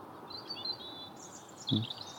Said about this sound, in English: Mostly robins. There's the odd song thrush. They're all quietening down.